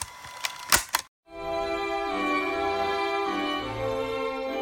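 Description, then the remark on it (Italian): A few sharp clicks, a brief silence, then a steady, dense buzzing of a beekeeper's bees in a forest in the German countryside near Berlin, humming on continuously, with no one speaking. “Partiamo da questo rumore. Lo sentite? Sono insetti. Sono delle api.”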